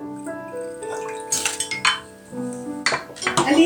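Four drinking glasses clink and knock together several times as they are handled for a Christmas dinner, with bright ringing tones lingering between sharper, irregular taps. No one speaks.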